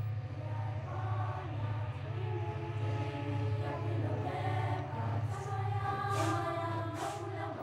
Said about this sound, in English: This train has no first class carriages, and it rides on some of the oldest track in South Africa. It's called Phelophepa, or the Good Health Train.